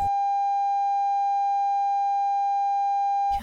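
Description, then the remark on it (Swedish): A steady, unbroken censor bleep tone holds one high pitch for over three seconds at constant loudness, cutting off abruptly with only brief noise at the edges and no talking. “säger till mig så kan vi inte bipa det då?”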